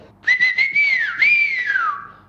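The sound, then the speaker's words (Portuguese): A person whistles a short, distinctive melodic phrase: a few quick chirping notes, then a rising and falling sweep that glides downward at the end, clear, with no talking. “cada um deles tem o seu assobio. E eu curtia ter o meu assobio”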